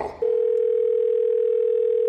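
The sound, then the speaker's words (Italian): A steady, unbroken telephone dial tone begins after a brief moment of muffled noise and holds at an even, clear level, the way an outgoing call to an electrician sounds before ringing. “Seconda telefonata all'elettricista.”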